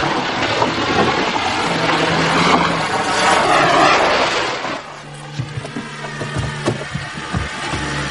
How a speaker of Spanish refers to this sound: observa un coche de la policía acercarse a la caravana.